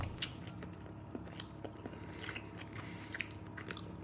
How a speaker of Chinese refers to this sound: 开始认真的吃了，开始嚼了。 非常的好吃